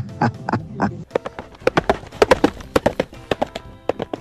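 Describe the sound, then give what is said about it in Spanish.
Horse hooves trot in a steady clip-clop rhythm, a quick run of sharp knocks on a hard surface that keeps going throughout, with some low rumbling noise early on. “Te siguen siendo bulle, quiero borrego y el caballo te traen al puro trote.”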